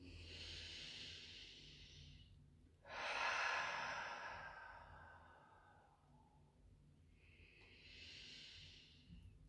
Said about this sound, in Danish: Jamen, så lad os... Øh, tage en, en, et par dybe vejrtrækninger sammen.